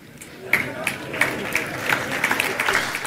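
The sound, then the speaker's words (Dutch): Soft, thin audience applause after a speech, genuinely this quiet rather than turned down: scattered, irregular claps rising and falling over a low murmur of voices, never building into a full ovation. “Ja, dat applaus heb ik niet zachter gezet. Dat was echt zo zacht, hè?”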